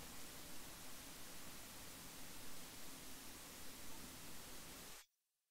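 Steady, dense static hiss fills the line for about five seconds at an even level, then cuts off abruptly into near silence. No voices are heard.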